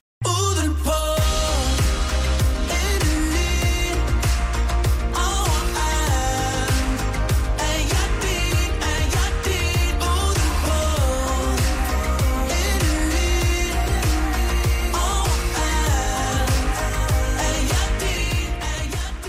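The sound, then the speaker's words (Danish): An artist's new pop single plays loud and full for the whole stretch, with a steady driving beat, deep bass and layered melodic instruments, and no talking over it. “det er din nye single, den hedder …. Skal vi høre den?”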